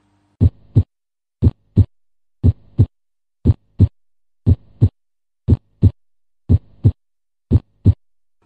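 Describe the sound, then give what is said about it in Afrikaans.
A steady, healthy human heartbeat with clear lub-dub pairs, the first and second heart sounds made by the closing of the heart valves, about eight beats at a regular slow rhythm, distinct against a quiet background with a faint low hum between beats. “hoe klink 'n hartklop van 'n gesonde hart”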